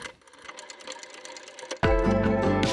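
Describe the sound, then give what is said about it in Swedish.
A homemade music beat, made by a bassist who had recently started producing in Logic, plays back, opening with a quick, ticking rhythmic pattern over faint tones before a loud, bass-heavy full arrangement suddenly kicks in. No one speaks. “Och han spelade upp en, eh, liksom ett beat han hade gjort.”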